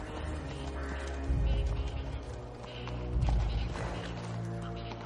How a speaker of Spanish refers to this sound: El rey cabalga al paso hacia el castillo.